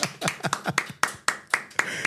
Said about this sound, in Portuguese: Uma salva de palmas.